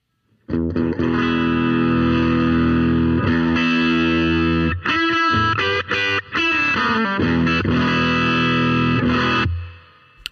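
An electric guitar on its humbucker pickup, with the guitar volume rolled back to 4, mostly cleaned up, rings out sustained chords, with a few choppy strums midway before the last chord fades away. No voices.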